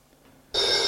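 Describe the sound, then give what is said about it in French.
A telephone on a bedside table bursts into a loud, bright ring after a moment of near silence, sustained to the end. “Le téléphone sonne sur sa table de nuit.”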